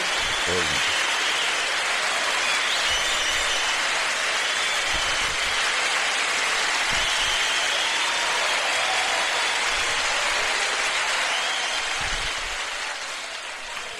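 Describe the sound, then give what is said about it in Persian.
A studio audience on a live program claps steadily and densely for about fourteen seconds for the show's sound recordist, a loud, continuous crackle of many hands that stays even throughout before easing off slightly at the very end. “تشویق رو بره بالا دیگه صدا بردارمون یه تشویق اون که برنامه زنده دیگه”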